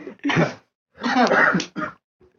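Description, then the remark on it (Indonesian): A few loud, raspy coughs from several people burst out in quick succession, a longer rough fit in the middle, followed by a short final cough, with no talking. “kok pada batuk sih”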